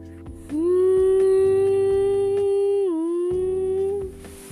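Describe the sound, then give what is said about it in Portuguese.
A police siren wails loud, holding a steady rising tone for a few seconds, dipping briefly in pitch before it fades out. No one speaks. “Até que eles começaram a ouvir as sirenes da polícia.”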